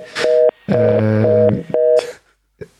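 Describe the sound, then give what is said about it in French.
A run of electronic telephone beeps from a faltering phone line during a radio phone interview, caused by a connection problem with the guest. Steady buzzy tones are broken into uneven segments with crackly bursts between them. It is fairly loud, and no one is talking. “J'explique juste que les petits bips que vous entendez, c'est quand on a un problème de connexion avec Flore Vasseur,”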